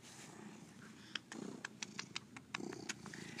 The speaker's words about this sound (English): This cat, this guy, Marky, big orange cat, real life Garfield cat, he just starts purring.